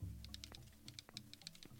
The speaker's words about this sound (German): Ja, das ist übel laut. Wie laut ist die Tastatur?